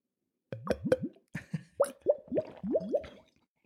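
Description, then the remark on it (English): A rapid series of hollow, gulping air-bubble plops from drinking out of a football-boot-shaped glass, where an air pocket forms in the foot, about eight to ten bursts in quick uneven succession, fairly loud, with no talking. “Okay, so I'll attempt not to, but if you do hear that in the episode, that is me drinking from a football shaped glass.”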